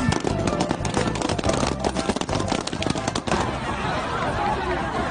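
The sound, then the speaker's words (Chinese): A dense, rapid crackle of many balloons popping as high school students stomp on some 20,000 balloons on the school sports field during a stress-relief event, sharp overlapping bangs for about three seconds before thinning into a steady crowd murmur. “每年孩子们都很期待这样的一场活动，孩子们都觉得踩气球很很能够这个释放自己的压力。”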